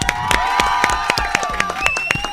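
Audience applause for a guest who has just been introduced, with loud, sharp claps landing in a steady, even rhythm about four times a second, over a continuous bed of cheering voices and high whistle-like tones.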